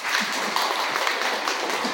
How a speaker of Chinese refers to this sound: 请掌声给他们。